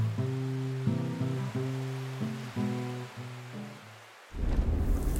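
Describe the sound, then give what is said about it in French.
Steady wash of surf on a beach at night beneath the stars sits under slow, ringing guitar notes as a person strums a few chords, then a louder wave surges in near the end as the music fades. No one speaks. “Et on s'allonge pour regarder les étoiles avec pour fond sonore, le bruit des vagues et quelques notes de guitare.”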